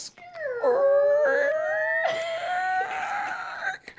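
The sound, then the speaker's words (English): A long, loud, drawn-out squeak of a home door slowly opening as someone leaves the bedroom, its high whining pitch gliding and wavering upward over about four seconds, heard on its own with no talking. “Because you don't, the loud squeak sound it makes, Yeah.”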